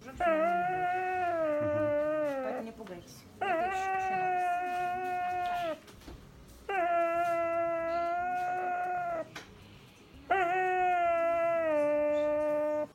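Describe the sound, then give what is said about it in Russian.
A young dog, Aira, whimpers in its sleep while coming out of anesthesia after a successful operation, letting out four long, eerie, wavering whines separated by short pauses. The cries are fairly loud and steady, with no talking. “Один из трогательных моментов, когда Айра отходил от наркоза и во сне издавал жутковатые звуки.”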